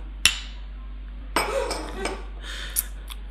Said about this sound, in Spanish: Y nada, pues servimos. Qué rica, ¿eh? Dale, chin chin. Salud.